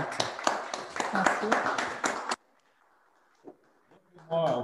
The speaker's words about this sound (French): Bah, tout d'abord, je pense qu'on peut applaudir nos participants et participantes et intervenantes